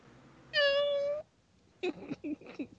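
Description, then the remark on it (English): A cat lets out one loud, drawn-out meow lasting under a second, followed by a brief pause and then some softer, choppy vocal sounds. “Something with real cats is like a strange thing to put in the middle of this fucking movie.”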